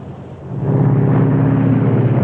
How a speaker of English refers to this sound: Okay, the number one engine's being feathered. Or the prop.